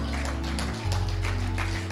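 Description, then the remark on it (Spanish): An audience applauds in praise of the living Christ, a dense wash of many hands clapping together over a steady, low sustained musical drone, lasting about two seconds with no talking. “Ah, yo no sé a quién le esté predicando, pero yo estaría diciendo, gloria a Dios con un fuerte aplauso al Cristo vivo.”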